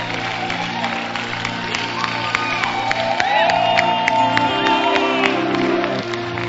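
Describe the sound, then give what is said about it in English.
A church audience claps and cheers together to celebrate the Lord, with scattered sharp claps, rising whoops and shouts over a dense wash of crowd noise, held loud and steady throughout, and a low sustained tone humming underneath. “Clap your hands, celebrate the Lord.”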